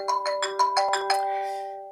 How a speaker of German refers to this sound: Da klingelt mein Telefon, warte mal. So, ganz live einmal den Anruf mitbekommen.